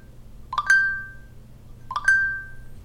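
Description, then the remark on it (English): A smartphone's default notification chime plays twice, about a second and a half apart. Each is a bright electronic ping whose tone rings out and fades, with no one speaking. “Oh, the default notification screen. sound.”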